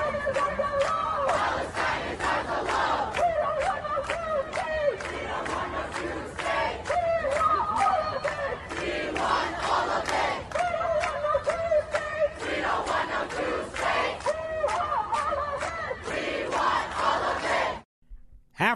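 A large crowd of protesters at NYU chants in unison, loud rhythmic shouted phrases repeating steadily with many voices overlapping, continuing for most of the stretch before cutting off abruptly near the end.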